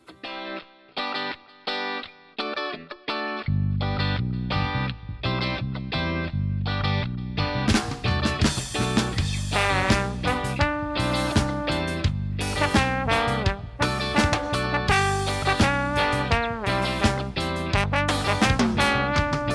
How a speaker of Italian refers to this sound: ci fai sentire ancora un po' di ska